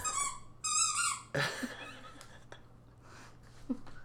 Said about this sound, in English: Guys, my dog just wants to sing to you for a moment.